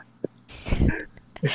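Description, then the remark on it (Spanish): A single loud sneeze bursts out after a brief faint intake of breath, followed by a short rustling noise. “Salud.”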